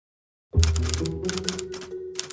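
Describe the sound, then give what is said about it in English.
Rapid typewriter keystrokes clatter in quick bursts with brief pauses between them, over a steady low hum after a moment of silence, as a law clerk transcribes a note on his typewriter in 1930. “On August 6, 1930, law clerk Joe Mara was transcribing a note on his typewriter.”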